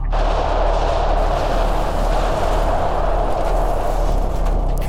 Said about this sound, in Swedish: Två patrullerande konstaplar kutar dit. 50 fönsterrutor har gått i bitar i en sprängning. Ingen människa skadas, vilket är lite konstigt med tanke på hur tajt husen ligger här och för att Västerlånggatan är ganska smal.